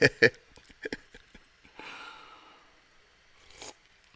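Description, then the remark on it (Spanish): An airy slurp as someone takes a first sip of hot coffee: a few quick clicks and breaths, then a drawn-out hissing intake of air and a short breathy exhale afterward. “Aquí el pastor … dándome mi primer sorbo de café.”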